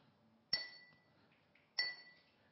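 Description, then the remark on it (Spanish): Two bright clinks on a glass bowl, each a sharp strike followed by a ringing high tone that fades over about a second, spaced roughly a second apart with quiet between them. “Si esto fuera un, vaso perfecto de cristal, eh, que de hecho están los tazones,”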